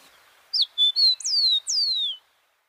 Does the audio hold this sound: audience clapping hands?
no